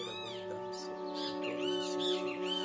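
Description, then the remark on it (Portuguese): Small birds chirp in quick, bright bursts over a steady humming drone, the tweets fairly soft and scattered across the short stretch with no one talking. “E com a bênção dos passarinhos guiados”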